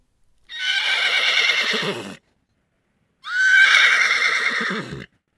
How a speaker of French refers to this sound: On entend un cheval qui hennit.